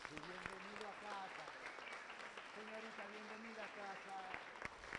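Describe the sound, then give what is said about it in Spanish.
Faint, steady applause from a small group welcoming guests, a dense patter of claps lasting the whole five seconds, with voices talking over it. “Deles un aplausito, un abracito, una palmadita.”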